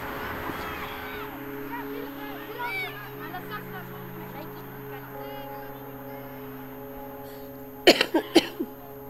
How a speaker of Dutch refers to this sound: mooi om te beginnen met een hoest.